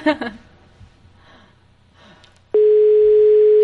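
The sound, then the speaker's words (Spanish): A brief laugh and some quiet shuffling, then a loud, steady electronic phone tone starts abruptly and holds unbroken to the end, like ringback on an outgoing call. “¿Cuántos tonos vas a dejar”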